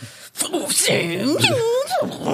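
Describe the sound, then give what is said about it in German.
A voice imitates a Formula 1 racing car engine roar, a rising and falling whine that sweeps up and down in pitch several times, loud, like a car screaming past. “Also für mich ist Formel eins so”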